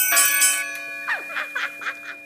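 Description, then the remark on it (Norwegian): Bells ring continuously for three minutes to ring in the 2012 Olympics at 08:12, their sustained metallic tones hanging in the air while a quick series of brighter strikes rises and falls over them. No one speaks. “Men nå er de tre bjelleminuttene straks over.”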